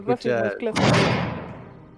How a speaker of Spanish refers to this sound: el último cerrar de la puerta y quedan ustedes.